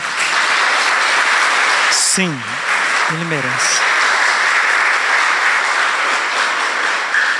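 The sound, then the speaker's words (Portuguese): A crowd in Cuiabá, Brazil, applauds for Saint Joseph steadily and loudly for the whole stretch, a dense, even wash of clapping. Partway through, a man speaks a brief line over it. “Uma salva de palmas para São José.”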